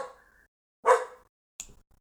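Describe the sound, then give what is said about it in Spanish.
A small dog barks a few times: a faint opening yip, then a loud, sharp bark and a quick high-pitched yap after a short pause, with no one talking. “Lindo del perrito.”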